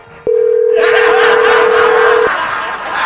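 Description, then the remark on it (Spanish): A steady, loud single-pitch telephone dial tone holds for about two seconds, then cuts off abruptly, with a hissy crowd-like background noise washing in partway through and continuing afterward. “está horrible, vamos a marcar.”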